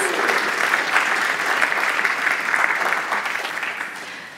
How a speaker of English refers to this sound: Can we please give these very busy, wonderful people a round of applause?